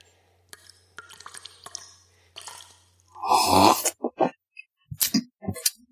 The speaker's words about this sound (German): Ich trinke mal einen Schluck Wasser aus dem Gebirgsee und dann überlege ich mir, wie es weitergeht.